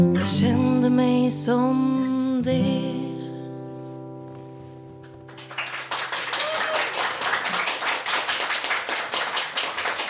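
A held sung note and music fade out, then a crowd breaks into steady, dense applause: many hands clapping at once, a loud sustained patter that carries through the rest.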